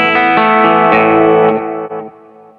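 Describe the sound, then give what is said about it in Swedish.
Electric guitar played through a Red Fang Alnico amp speaker, miked with an SM57, strumming a handful of loud, sustained chords with a lightly driven, effected tone that rings out and fades at the end. No voices. “för er som eh, inte kan sova för att ni inte får veta vilket element vi lyssnar på, för jag har ju bara mickat upp med SM57 här. Det är, det är Red Fang då, Al Nico-varianten.”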